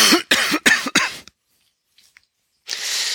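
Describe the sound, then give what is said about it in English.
A person coughs from tension in the throat: a quick run of four harsh coughs in rapid succession, then a brief silence before a breathy, noisy rush of air. No one speaks. “Oh, every time I start to come into the floor, I, I notice I need to cough.”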